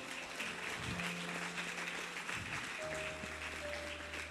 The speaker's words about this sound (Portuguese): Aplaude ele, aplaude.